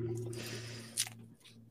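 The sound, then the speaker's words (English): Wet sipping and squishing as someone drinks water flavored with Kool Aid or Mio from a bottle while air is drawn through its air hole, with a brief sharper slurp near the middle over a steady low hum. “What are you drinking with your air hole, It is um, water with some Kool Aid, uh, Mio water.”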